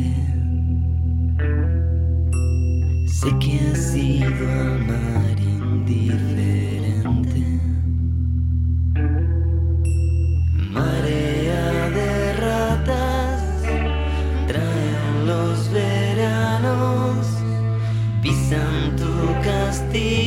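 A rock song plays loud and steady throughout, with a heavy bass line, effected guitars and driving drums filling the mix and no one talking over it.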